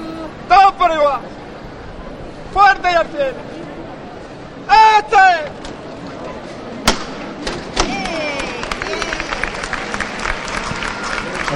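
A paso de misterio procession float is lifted by its bearers: three loud shouted calls, then one sharp heavy thud, followed by rising applause and crowd murmur that keeps going.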